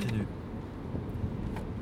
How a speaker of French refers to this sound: Je suis dans la voiture, direction les Ardennes belges.